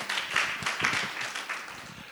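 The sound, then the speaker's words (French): An audience applauds steadily, a dense wash of many hands clapping at a fairly even level that tapers slightly toward the end, welcoming guest Thierry Blin, physiotherapist and osteopath, founder and head of Kinéformation, at an evening event. “Et enfin, Thierry Blin, kinésithérapeute et ostéopathe, fondateur et dirigeant de Kinéformation, que je n'ai même pas besoin de vous demander d'applaudir, évidemment.”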